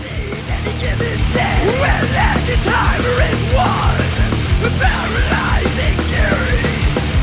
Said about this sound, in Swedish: Det här är pionjären inom amerikansk old school döds. Produktionen ska låta skitig. Eh, jag gillar det här. Det är verkligen back to basic. Grym old school amerikansk döds.